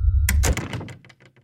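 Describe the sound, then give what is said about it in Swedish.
A low hum fills the first moment, then a room door is shut behind someone with a solid thump, followed by a quick run of small latch clicks as it clicks into place, and the sound fades out. Fairly loud, no voices. “Jag stängde dörren bakom mig.”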